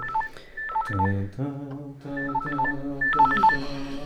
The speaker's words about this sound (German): Ein Handy klingelt in einer Hosentasche. Dein Handy klingelt